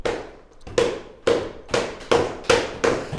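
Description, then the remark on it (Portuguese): A drumroll beaten with hands on a table to introduce the show Breakfast with Fred: about six loud, sharp thumps at a quick, slightly uneven pace, each ringing briefly, with no voices. “Podes participar com as mãos também desta vez. Sem mandar a mesa abaixo.”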